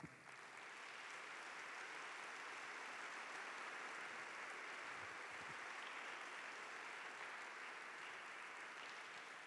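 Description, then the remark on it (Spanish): An audience breaks into sustained applause for Jesus, a dense, steady wash of clapping that holds at an even loudness for several seconds without any voices on top. “Pues dale un fuerte aplauso a Jesús.”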